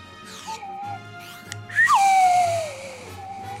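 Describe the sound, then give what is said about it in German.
Someone whistles an imitation of a Formula 1 car, a McLaren, speeding past: a few rising sweeps, then a sharp high note that swoops down in pitch as if the car zooms by, with no talking. “Das war Formel halt. 1 aus, vorbeigefahren Ja, ja, nur als Pfeifen.”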